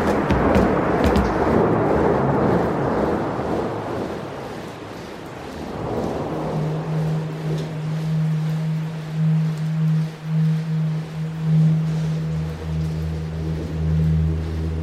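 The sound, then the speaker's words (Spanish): Steady rain hisses as a dense, unbroken wash of noise, loudest at the start, then a low, constant droning hum settles in underneath for the rest. “Hoy. Lluvia.”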